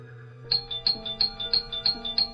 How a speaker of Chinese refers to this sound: 对着门铃就开始了蹂躏，真是担心这个门铃会不会在她的手里被玩坏呀？